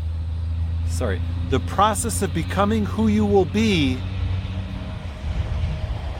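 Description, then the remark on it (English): A steady low engine rumble of road traffic going by in the countryside, fairly loud, runs the whole time under a man's speech and continues after he pauses. “Pardon the traffic.”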